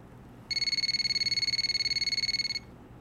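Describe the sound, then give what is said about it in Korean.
A telephone rings once in a single two-second burst, a high, rapidly trilling electronic warble that sounds steady and fairly loud, then stops, leaving a faint background hiss. No one speaks. “아, 지금이 몇 시인 줄 알고 전화를 했나?”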